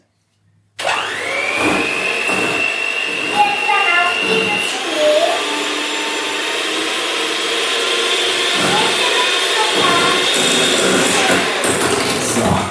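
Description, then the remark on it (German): An electric hand mixer whirs steadily as it beats egg with some of the sugar and a pinch of salt, a loud continuous motor drone with a rising whine at the start and slight shifts in pitch as the beaters move through the mixture. “Dann kannst du jetzt das hier mixen. Hoffentlich spritzt das jetzt nicht.”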